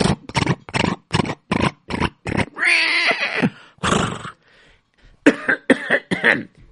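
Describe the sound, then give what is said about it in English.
A rapid string of short, harsh coughs, followed by a drawn-out, gravelly throat clearing and a few more rough coughs, with no talking. “The horse cleared his throat this time.”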